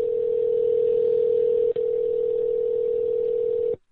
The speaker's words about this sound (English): Wow, that's a weird ring. It's like a double ring.